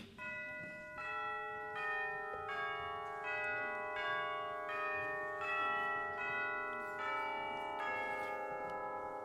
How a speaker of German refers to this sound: Goldenes Sonnenlicht, himmlischer Himmel, süße frische Luft, bim, bam, ding, dong, ding, dong, fröhliche Glocken, herrlich, herrlich.